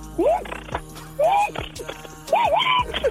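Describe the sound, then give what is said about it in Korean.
A voice imitates an impact wrench tightening wheel nuts after a tire change: three loud, buzzy vocal bursts, each rising and falling in pitch, separated by short pauses. “타이어 갈고 나서 이제 조일 때 들어볼게요.”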